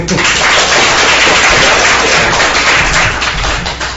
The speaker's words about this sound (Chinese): 然后老师是临危受命，也是非常短的时间给我们准备的这样一期活动啊！大家以热烈的掌声。